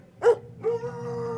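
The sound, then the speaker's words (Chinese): A Scottish sheepdog named Meinü, upstairs in a neighbour's house, lets out a short, sharp yelp, then breaks into a long, steady, mournful howl held on one high-pitched note until the end, with no one talking. “我们这边叫做狗哭。”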